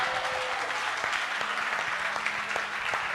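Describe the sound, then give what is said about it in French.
An audience claps steadily to acclaim the Lord in a dense, continuous wash of applause, with a few faint voices rising and tones held underneath, staying at an even, moderately loud level throughout. “Alors, acclame le Seigneur”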